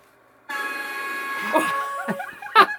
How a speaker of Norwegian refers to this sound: Så kommer det to andre med toghorn ut av døra og tuter på han.